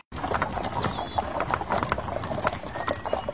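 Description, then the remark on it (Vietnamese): Steady clip-clop of a young horse's hooves as it draws a carriage along a hard road, a quick even rhythm of many hoof strikes, clear, with a faint background hum. “Một buổi sáng nọ, có một nhóc thỏ ngồi trên bờ đất, hai tai nó nhỏng lên nghe tiếng vó ngựa non gõ lóc cóc lọc cọc”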